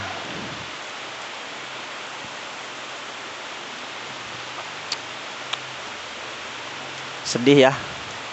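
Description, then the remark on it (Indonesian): Steady rain hisses evenly throughout, with a few sharp drip-like ticks near the middle, and a person speaks briefly near the end. “hujan gini nggak punya pasangan”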